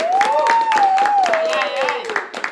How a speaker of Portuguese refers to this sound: Uma salva de palmas para os nossos queridos convidados.